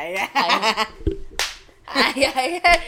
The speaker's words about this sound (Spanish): el aplauso, a ver con las nalgas. A, ver si me sale.